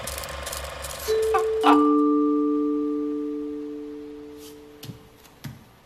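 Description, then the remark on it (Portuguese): A two-tone doorbell chime rings out clearly: a higher note and then a lower one that lingers and slowly fades, preceded by some mechanical clatter, with a couple of soft knocks near the end. “E do nada toca a campainha, mano.”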